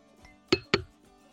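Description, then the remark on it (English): Glasses clink together in a toast, two bright taps in quick succession, each ringing briefly before fading. Fairly loud against a quiet background, with no talking. “gentlemen, on behalf of all those gentlemen, I toast them today. Cheers, and I second all of them, mate.”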